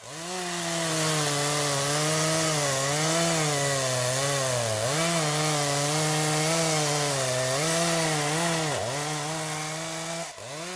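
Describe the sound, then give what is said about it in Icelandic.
A chainsaw, the one Argentina's newly elected president Javier Milei holds aloft, runs steadily for about ten seconds, its engine whine rising and dipping in pitch as it revs, with a brief sharp drop near the end. No one speaks. “Þetta keðjusauðin sem nýkjörinn fórseti frjálsíkjumadurinn Javier Milei ætlar með á kerfið.”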